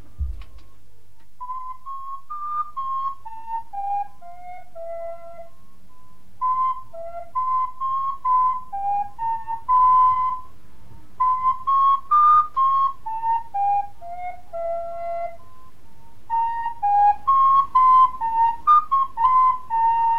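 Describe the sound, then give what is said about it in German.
Someone whistles the melody of the hymn "Aus tiefster Not schrei ich zu dir", slow and solemn, clear, phrase by phrase with short pauses between lines. No voices or other sounds accompany it. “Diese Melodie gehört zu dem Lied Aus tiefster Not schrei ich zu dir.”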